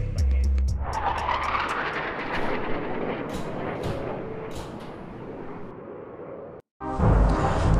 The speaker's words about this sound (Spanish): Wow, escucharon ese ese trueno. Espero que no. Eh, no sé si se puede escuchar con el micrófono, ¿no? Pero aquí estoy grabando en Ciudad de México